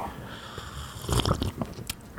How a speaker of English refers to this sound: For people listening on Spotify, this is the sound of me sipping some black coffee.